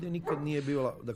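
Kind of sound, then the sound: animal, dog whimpering and yipping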